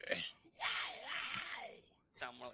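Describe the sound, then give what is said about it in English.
A person imitates a lone wolf howl: one drawn-out, wavering wail that rises and falls over about a second, framed by short vocal bursts before and after. “there's the first lone wolf.”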